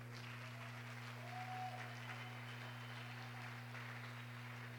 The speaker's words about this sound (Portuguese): Aplauda o Senhor.